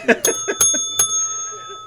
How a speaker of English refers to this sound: Ring the bell